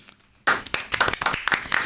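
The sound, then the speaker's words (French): An audience breaks into applause after a brief quiet moment, with many hands clapping in a dense, crisp patter that stays steady and fairly loud to the end. “On peut l'applaudir.”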